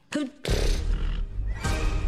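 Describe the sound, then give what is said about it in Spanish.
A horse neighs loudly, a short shrill whinny followed by a rough, breathy blast and snorting that fills the rest of the brief moment. “Este caballo tiene un espíritu indomable.”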